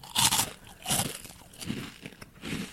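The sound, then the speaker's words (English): Loud crunching as someone bites and chews a crisp snack chip, with several sharp bursts of crunch followed by steady chewing, no talking. “That one, it's crunchy and it's got long crunch.”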